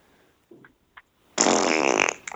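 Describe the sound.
A loud, close, buzzy farting noise lasting about a second, seemingly blown with the mouth, preceded by a couple of soft short blips and trailing off with a few sputters.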